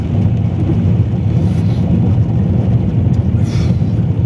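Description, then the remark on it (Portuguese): A car engine rumbles steadily as the car is being parked, a loud, continuous low drone with slight swells in pitch, as if the vehicle is moving slowly. No one speaks. “Vou estacionar o carro e já falamos...”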